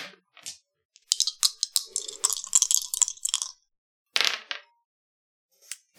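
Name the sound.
dice being rolled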